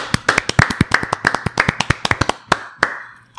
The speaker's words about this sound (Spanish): Le agradecemos y si podemos darle un pequeño aplauso, por favor, porque fue un gran pilar